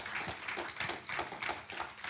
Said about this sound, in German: Gott verdient einen Applaus.